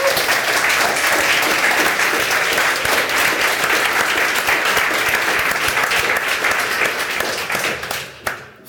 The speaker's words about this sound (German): Wir sind wieder im wunderschönen Bunker Ulmenwall im Herzen von Bielefeld und ich habe ein wunderbares Publikum hier am Start. Hallo Leute! Applaus